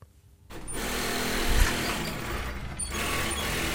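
A tailor's sewing machine in a small shop in the north of Paris, France, starts up after a brief silence and runs steadily, a continuous mechanical whirring and rattling that dips briefly near the end before carrying on. No one speaks.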